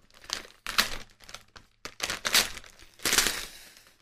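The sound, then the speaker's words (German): Recycled paper crinkling and rustling in several bursts over a few seconds as the recycled-paper wrapping is torn open and pulled away from a gift, a book. “Du siehst es nachhaltig verpackt, ne? Das ist ja, offensichtlich Verpackungsmüll, ja, ja.”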